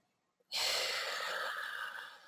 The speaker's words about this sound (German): Atmen tief ein